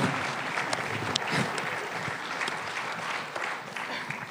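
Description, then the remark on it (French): An audience applauds three speakers steadily, a dense wash of many hands clapping at once, sustained and fairly loud throughout with no voices standing out. “On vous applaudit tous les trois et on va prendre vos questions.”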